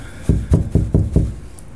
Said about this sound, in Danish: Jeg må hellere lige banke på her.